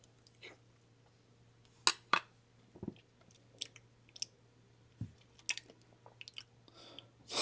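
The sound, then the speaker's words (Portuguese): Someone eating ice cream: soft wet smacks, slurps and little clicks come in irregular bursts over a faint steady hum, with no one talking. “tô comendo sorvete aqui.”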